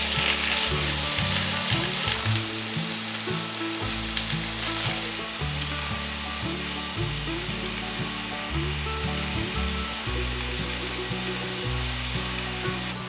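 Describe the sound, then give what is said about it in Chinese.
King oyster mushrooms, stood up on their sides so the edges brown, sizzle and fry steadily in a pan, a dense crackling hiss that stays fairly loud throughout, with no one talking. “我大概焖了十秒左右，杏鲍菇的边边还没有上色，可以把杏鲍菇的侧边站起来，这样子煎。”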